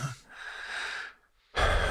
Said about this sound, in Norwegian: Eh, jeg puster litt tungt nå